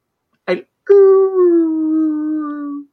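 A humpback whale's low call: one long, mournful moan that glides slowly downward for about two seconds, rich in overtones, preceded by a brief rough grunt.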